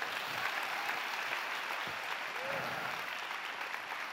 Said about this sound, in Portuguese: Aplauda, aplauda, aplauda.